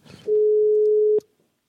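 A single steady telephone ringing tone sounds for about a second on an outgoing call made during a live broadcast, clear and unaccompanied, then cuts off abruptly with a click as the line connects.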